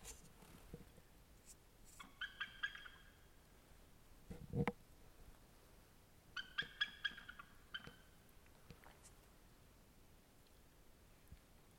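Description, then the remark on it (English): A bald eagle flying overhead calls in two bursts of high, squeaky chittering notes a few seconds apart, with a soft thump between them and no talking. “Never heard a bald eagle.”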